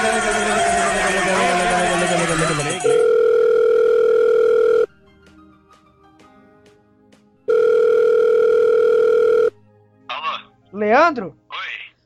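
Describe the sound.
A phone call rings out: a steady, buzzy ringback tone sounds twice with a long silent gap between, after a burst of noisy chatter, then a voice answers.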